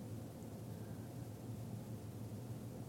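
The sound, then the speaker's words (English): A steady, low rumbling wash of ocean surf against the shore, with no distinct individual crashes. The soft, continuous roar holds an even level throughout, with no voices. “And let's tune in for a moment to the sounds of the waves.”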